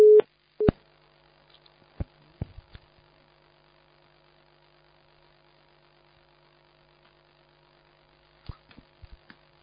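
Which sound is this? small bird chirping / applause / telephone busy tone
telephone busy tone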